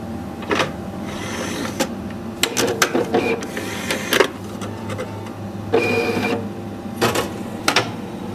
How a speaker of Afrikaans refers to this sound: So hy kry nou sy plakkaat bo-op. Ja. En dit is die tweede afskrif van 'n CD van 5. Ja. Die eerste een is 'n benaming en titel wat nou besig is om te druk.